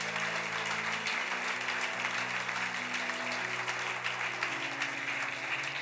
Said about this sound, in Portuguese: Se você crê, aplauda Jesus bem forte por isso.